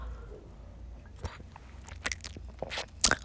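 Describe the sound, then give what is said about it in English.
A can of wine being opened and sipped: soft, quiet slurps and handling noises, then a sharp pop with a brief fizzy hiss near the end. No one speaks. “First of all, like, okay gonna snap my tongue and take a sip of my freaking canned wine.”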